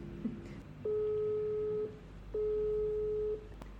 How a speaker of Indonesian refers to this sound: Coba kita ini kita calling ya. Iya, calling aja.